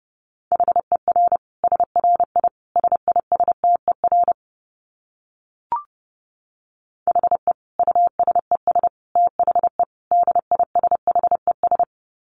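Morse code at 30 words per minute: a steady mid-pitched tone keyed in rapid dots and dashes, two runs split by a short pause with a single faint blip between them.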